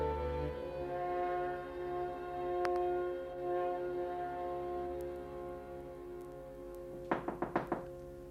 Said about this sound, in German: Es hat geklopft, Charlotte.